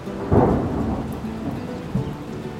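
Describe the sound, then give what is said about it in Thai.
Heavy rain pours down at night in a steady hiss while deep rolls of thunder rumble, with a loud boom near the start and another lower rumble toward the end. “คืนนั้นฝนตกหนัก”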